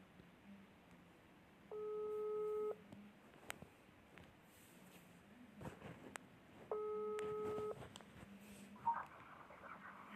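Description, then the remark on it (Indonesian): A phone call's ringback tone sounds twice while calling a university student directly, each steady electronic burst lasting about a second with a long pause between, fairly loud over a faint noisy background with occasional clicks. “oke sekarang kita telepon aja langsung ya”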